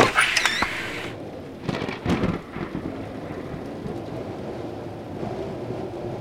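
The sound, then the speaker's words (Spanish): A thunderstorm on a cold night with a strong gale: a sharp, loud thunder crash near the start and another rumbling burst soon after, over steady heavy rain that continues throughout. “Había tormenta y la ventana se había abierto de par en par por el fuerte vendaval.”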